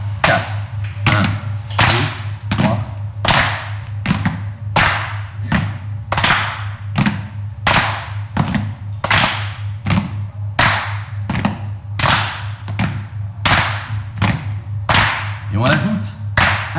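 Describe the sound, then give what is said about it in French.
A steady, repeating beat of foot stomps and sharp hand claps, loud and evenly spaced, continuing for the whole stretch over a low, constant hum, with no voices. “1, 2, 3, 4, pied, 4 de main.”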